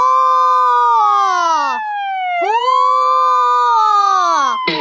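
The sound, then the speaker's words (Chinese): A fire engine siren wails loudly in two long cycles, each rising sharply then slowly sliding down in pitch, with a brief dip between them and no voices. “嘿嘿，是消防车。火火，听起来是不是像是有人在喊火火？”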